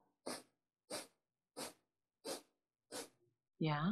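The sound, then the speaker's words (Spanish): Five sharp, forceful nasal exhales in a steady rapid rhythm, loud, a yoga breath of fire with exhalations stronger than inhalations, done while creating a mandala; a voice starts speaking right after the last one. “cada 10 minutos hacer una respiración, como le llaman a veces en el yoga, de fuego.”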